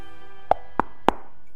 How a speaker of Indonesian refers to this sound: Tapi pasukannya tetap bergerak, menelusuri satu demi satu gang dan mengetuk setiap pintu rumah.